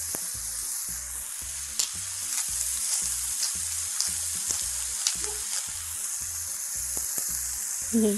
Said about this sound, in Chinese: 我们往里面放一点盐跟胡椒粉，稍微翻它一下就可以。因为一会儿还要去烤它，所以不需要炒很久。而且这样它的水分也不会出来，然后把你的酥皮弄得过于的潮湿。